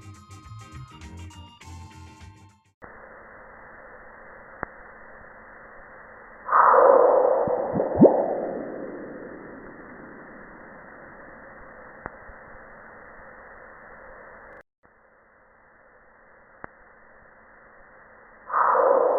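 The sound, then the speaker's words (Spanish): A recording of a meteorite impact on Mars: over a steady low hiss, a sudden muffled boom swells, then fades into descending whistling sweeps. A brief electronic jingle plays first, and another burst begins at the end. “¿Quieren escuchar cómo fue el impacto del meteorito en Marte?”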